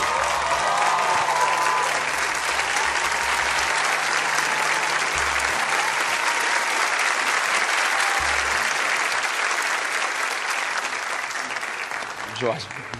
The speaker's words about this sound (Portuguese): Por favor, Jorge Mol, pode aplaudir.